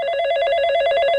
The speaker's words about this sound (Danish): Oh, undskyld, det er min telefon, der ringer. Hvor ringer det fra? Det, jeg tror, det er receptionen, der stiller nogen op.